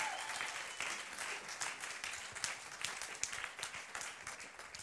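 Steady applause from an audience, a dense wash of many hands clapping continuously throughout with small irregular peaks, no voices standing out.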